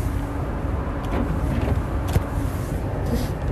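Windshield wipers sweep at a steady pace, roughly once a second, over the constant low rumble of a car driving in light rain on a very uncrowded road. No one speaks.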